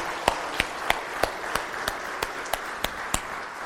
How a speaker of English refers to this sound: And so you guys need to be applauded. So, can we give the moms an applause today? Because for all they do,